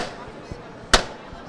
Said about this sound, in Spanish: Bueno, sigue detenido el paso, ahora se va a escuchar el llamador.